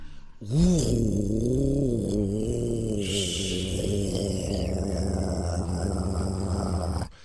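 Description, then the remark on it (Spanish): A gray Lamborghini Huracán Performance, a special-edition car, revs loudly on the street, its pitch surging up and down in several waves over about six seconds with a deep, growling edge, no voices present. “Era número 6 acelera con un Lamborghini Huracán Performance.”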